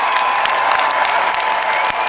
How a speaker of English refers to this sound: So let's have a big round of applause for our real dentist,